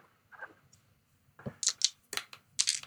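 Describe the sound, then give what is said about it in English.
Dice are picked up and rolled, starting with a soft shuffle, then a burst of sharp clicks and clatters in quick succession. No one talks. “Hold on, let me get my the correct dice.”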